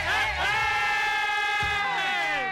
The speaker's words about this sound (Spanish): Es que lo di todo en ese grito.